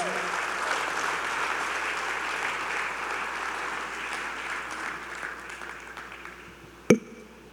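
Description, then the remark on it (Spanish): A large audience at a church sermon claps steadily for several seconds, giving applause to the Lord, a dense, sustained wash of applause that slowly eases off, ending with a single sharp knock near the end. “Y celébralo y dale un aplauso al Señor y, haz algo para Dios.”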